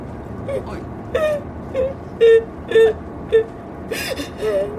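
A mother cries in a car while being driven, in broken, wavering sobs and whimpering moans, about eight short bursts rising and falling over a steady low rumble of background noise.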